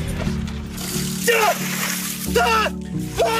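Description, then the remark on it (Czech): A bucket of ice water is dumped over a person for a social-media nomination challenge, in splashing bursts, each followed by sharp gasps and yelps, over a steady low hum. “Základní princip je jako u jiných výzev, někdo vás na sociální síti nominuje, vaším úkolem je něco udělat, třeba policek belikem s ledovou vodou, jako v tomto případě, nebo se tomu vyhnout, věnovat peníze na výzkum amyotrofické laterální sklerózy”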